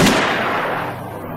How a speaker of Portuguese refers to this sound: E como que, para me mostrar que não foi a decisão mais inteligente, um tiro me fez abrir os olhos.